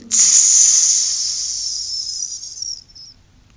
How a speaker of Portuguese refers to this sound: Voou novamente para a floresta, que estava em chama de fogos ardentes, e chacoalhou-se todo, as gotículas de água caíram sobre as labaredas de fogo, fazendo um barulhinho.